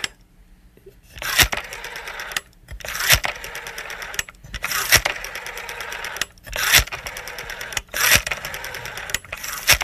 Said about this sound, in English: for those of you who don't know, this is what a telephone used to sound like.